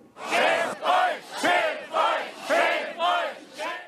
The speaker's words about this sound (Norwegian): Skam dere, skam dere, roper demonstrantene i Erfurt.